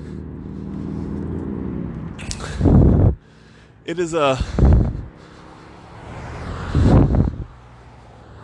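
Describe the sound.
Several cars whoosh past outdoors one after another on a windy, cold day in Post Falls, Idaho, each swelling loud before fading, with wind noise and a man's voice talking briefly in between.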